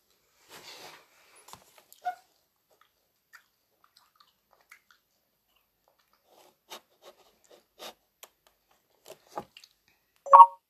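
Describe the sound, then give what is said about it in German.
A short, bright phone message notification tone rings out near the end, from a phone left unmuted during a recording, preceded by scattered faint clicks and rustles with no one speaking. “Oh, ich habe eine Nachricht bekommen.”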